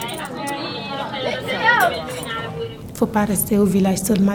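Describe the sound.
Busy crowd chatter at a market where women sell fish or vegetables, many overlapping voices, with occasional clinks and a few louder voices rising above the steady babble.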